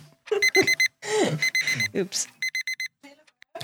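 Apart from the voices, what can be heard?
alarm clock going off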